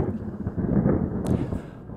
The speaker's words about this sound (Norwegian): Det kan hende det må være litt torden her òg. Mm -hmm. Ja, nei, nå har jeg spart på den lydeffekten, så den kommer nå.